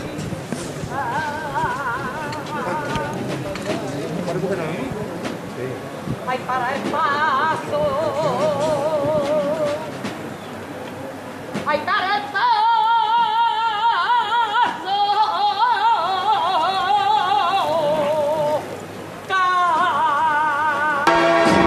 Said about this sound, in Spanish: pone este palio enfrentado a la giralda que se nos cuela entre los edificios de, esta calle Mateo Jago del barrio de Santa Cruz. el martillo, cuerpos abajo y suena la saeta uno de los balcones de, Mateo Jago. Vamos a, a escucharla.